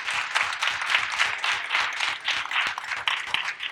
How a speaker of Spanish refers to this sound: Amén pues les doy un aplauso a ustedes. Dios les bendiga.